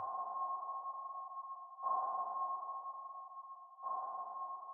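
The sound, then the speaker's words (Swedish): A steady electronic sonar tone around one pitch, with a sharp ping repeating roughly every two seconds, sustained and moderately loud with no voices; sonar from a search boat scanning Loch Ness with 600 sonar beams. “För att verkligen lyckas upptäcka monstret och varenda dold vrå av sjön så användes satellitnavigeringsteknik och 600 ekolodstrålar.”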